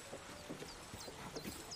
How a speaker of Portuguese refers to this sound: Nesse momento vocês sentem um solavanco repentino na carroça, né? Ela para, o boi dá uma, uma bufada assim, bate a pata no chão.